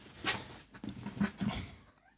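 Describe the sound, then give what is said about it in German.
A pet cat coming in and wanting attention meows a few times in short, soft cries clustered together, with a sharper sound near the start, quiet, and no talking over it. “kommen die Katzen und wollen auch ja.”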